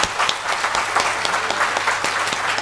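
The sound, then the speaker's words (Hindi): Steady applause from an audience, many hands clapping together in a dense, continuous patter that stays fairly loud throughout, with no voices standing out. “एक बार उनके लिए आप ताली बजा दो”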